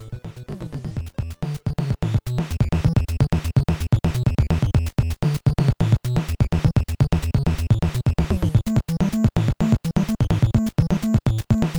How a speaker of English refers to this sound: Do you want to listen to the sample and the bass and noise yeah, and stuff again? Let's listen to a few of the channels soloed out.